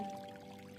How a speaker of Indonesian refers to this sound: bayangkan kita sedang ada di sebuah pegunungan gemericik air